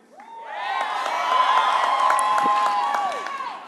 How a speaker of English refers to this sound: Don't cheer for people that leave.